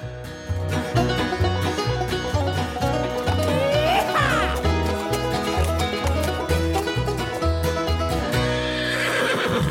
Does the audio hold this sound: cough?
no